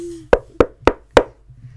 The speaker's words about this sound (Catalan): I els nens van picar la porta.